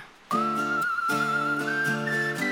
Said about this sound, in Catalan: Ara, ara sí, veieu? Veieu com ja comença a xiular?